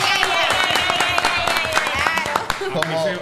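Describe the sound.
An audience claps steadily for about three seconds, a dense, loud patter of many hands, with voices calling and cheering mixed in throughout.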